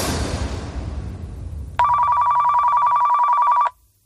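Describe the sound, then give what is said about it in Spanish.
A mobile phone rings with one loud, steady electronic trill lasting about two seconds, then cuts off abruptly, shortly before two in the morning. A fading rush of low noise comes before it; no one speaks. “Suena el teléfono.”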